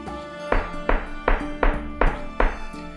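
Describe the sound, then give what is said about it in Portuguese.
Six hammer blows strike a surface in a steady rhythm as a boy hammers up what seems to be a notice, each a solid, fairly loud thunk, with a sustained musical tone running underneath. “E está lá, martelando o que parecia ser um aviso.”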